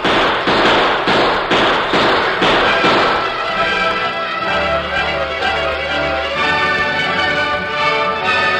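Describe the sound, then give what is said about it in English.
A quick run of about six loud, sharp shots from a Peacemaker revolver fired close together, followed by a lingering, ringing rumble as the echoes die away. “Not as long as I've got six bullets in this peacemaker.”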